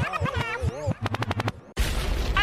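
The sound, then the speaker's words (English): A gunshot sound effect: a rapid burst of about six sharp shots in quick succession, preceded by warbling tonal sounds and followed by a loud wash of noisy hiss. “Liquid means rewind, a gunshot means forward.”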